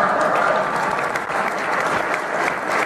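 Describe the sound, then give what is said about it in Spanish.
A crowd claps steadily in dense, continuous applause that holds at a fairly loud level for the whole stretch, with a faint murmur of voices mixed in. “Y la gente le aplaude, pero ahí está.”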